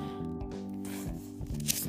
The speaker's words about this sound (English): Sorry for the paper, for the, the Bible rattling.